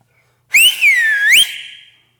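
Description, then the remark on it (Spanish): A person whistles once, clear, imitating a vulture's call: one bright tone about a second long that dips down and then swoops back up before fading, with no talking. “El morrocoy, en lo que oyó el silbido del samuro, salió apuradito, apuradito, apuradito”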